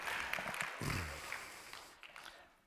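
A small audience claps in a dense, scattered patter that stays fairly quiet and gradually thins out, with a brief murmur of voices partway through.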